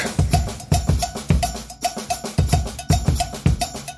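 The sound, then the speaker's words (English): A loud, steady percussion groove with deep thumping drum hits and bright, clanking metallic strikes, repeating in a driving rhythm with no voices. “So we've got um, this the beat you're hearing fade in right now, which I will tell you as soon as I open up the file.”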